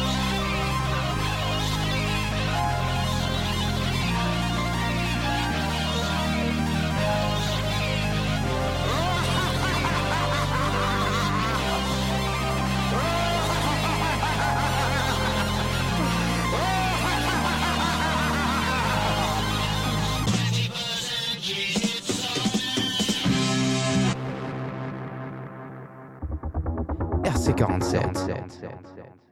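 A loud hip-hop track plays with a heavy, repeating bass pattern and layered vocals, then breaks near the end into a sparser, choppier section with short bursts of sound.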